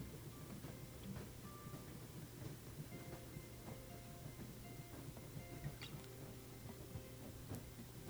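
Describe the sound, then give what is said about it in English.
A moving train's steady low rhythmic rumble heard inside a cabin as it travels through the mountains, quiet and continuous, with faint scattered clicks and rattles from the carriage. No one speaks. “as you listen to the rhythm of the train.”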